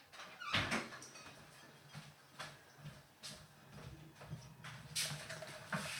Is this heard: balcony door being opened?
yes